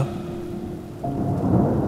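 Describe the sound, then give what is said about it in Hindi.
Thunder rumbles low and heavy over steady rain, then swells into a louder, rolling crack about halfway through. Nobody speaks. “वो बिजली कड़की घटा उमड़ी मगर कुछ पल को आंख बरसी भी मगर मौसमी बारिश की तरह”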